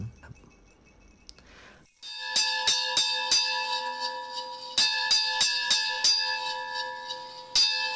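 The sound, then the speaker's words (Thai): After a quiet start, a bell rings out eleven times in a rapid series of bright, resonant strikes, each one ringing on and overlapping the next, marking eleven o'clock at night. The strikes are loud, with no voices. “มีเสียงะระฆังนะครับ ดังขึ้น 11 ครั้งนะครับ เป็นการบอกว่าตอนนี้คือเวลาห้าทุ่มนะครับ”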